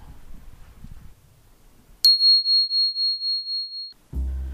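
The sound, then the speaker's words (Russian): A telephone rings with a high, steady electronic tone that warbles in quick pulses for about two seconds, clear, between stretches of low, muffled background rumble. “то все, с этим телефоном тоже закончено.”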